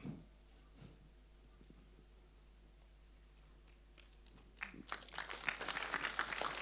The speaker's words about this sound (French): Ça, c'est les applaudissements des adieux. Ça peut être ça.